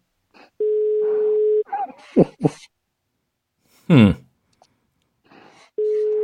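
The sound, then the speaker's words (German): A telephone ringback tone on an outgoing call: a steady, buzzy, mid-pitched tone lasting about a second, then a long pause before it sounds again, with throat clearing and a brief murmur in between. “Es klingelt verdächtig lang.”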